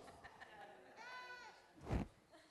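A single wavering sheep bleat, about half a second long and moderately loud, rises out of quiet background noise, followed shortly by a brief, low thump-like burst.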